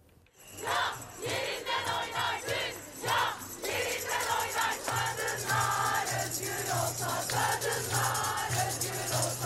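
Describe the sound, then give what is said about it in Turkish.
A large crowd of women on the traditional 8 March International Women's Day night march in Istanbul, from Taksim to Karaköy, chants slogans loudly and continuously in unison, with rhythmic surges and cheering, the roar of many people filling the whole recording without pause. “Şimdi kadınların gür sesine kulak verelim.”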